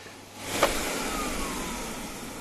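An old-model corded vacuum cleaner whirs into life with a loud, steady motor roar and a brief clack, then keeps droning evenly, with no voices.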